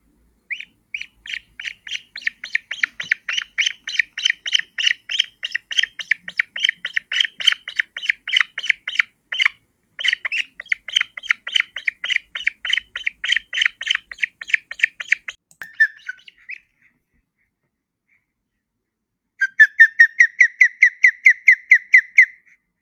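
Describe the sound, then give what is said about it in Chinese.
Osprey calls from a large, fierce bird of prey, identified as the jujiu bird of the Book of Songs: a long run of rapid, high whistled chirps in a steady pulsing rhythm, then a pause and a shorter, louder burst of the same piercing chirps. No talking. “这就是鹅的叫声。”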